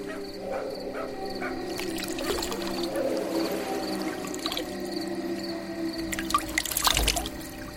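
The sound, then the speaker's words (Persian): Water pours and splashes steadily, with a brief louder spill near the end, as if being splashed over hands, with a constant low background hum and no talking. “یه آب دیگه بزنم دستورون”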